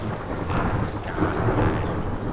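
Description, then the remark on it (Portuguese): Heavy rain pours down in Rio de Janeiro in a steady, dense roar, with deep rumbles of thunder rolling underneath throughout. No voices are heard. “o Rio de Janeiro está estava sofrendo um dilúvio, Barbera. Chovendo”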